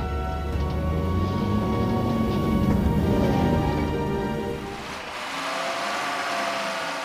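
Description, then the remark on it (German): A vehicle nicknamed the Frosch, stuck in sandy ground in the desert, revs hard and steadily with a deep, rumbling drone, then briefly eases off before a harsher, hissing roar takes over, like wheels spinning in loose sand. “Der Frosch fährt sich fest.”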